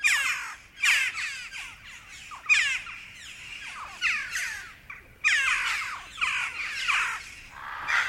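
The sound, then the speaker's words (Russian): Jackdaws call repeatedly in short, sharp, overlapping bursts, like a small flock chattering, with no talking and only quiet gaps between the calls. “Голос у них гораздо мелодичнее вороньего карканья.”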